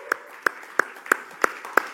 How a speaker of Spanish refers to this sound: Amén pueden dar un aplauso? ¡Uh!